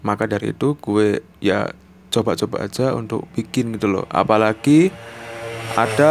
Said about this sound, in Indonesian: suara motor lewat